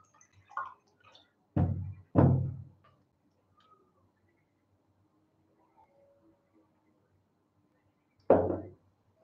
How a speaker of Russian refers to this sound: Сейчас я воды попью, а то сейчас опять будет.